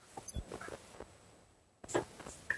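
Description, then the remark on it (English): A cat named Snow runs around, its soft, irregular paw taps and light scrabbling coming in scattered bursts with a short quiet lull in between. No one speaks. “Also, my cat's running around.”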